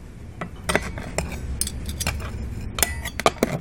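In a restaurant, a staff member sets the table one piece at a time: three kinds of glasses, two pairs of forks and knives of different sizes and four spoons. A string of light clinks and taps at uneven intervals over a soft background murmur.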